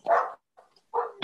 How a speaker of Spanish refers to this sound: Ay, perdón por mis perros.